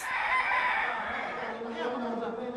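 A rooster crows once, a loud, drawn-out call that slides downward in pitch and fades toward the end, with no other sounds around it.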